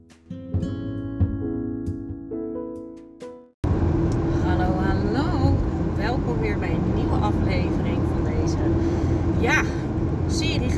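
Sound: inside a moving car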